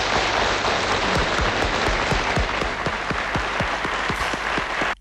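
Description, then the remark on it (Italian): Dense applause from a large crowd in an archive broadcast of La Domenica Sportiva on 12 April 1970, celebrating Cagliari's Italian league title, with presenter Lello Bersani also applauding; a steady wash of many hands clapping at a constant, loud level before cutting off abruptly at the end. “12 aprile 1970, alla Domenica Sportiva, Lello Bersani, che applaudiva anche lui con grande partecipazione, celebra così il successo dei rossoblù.”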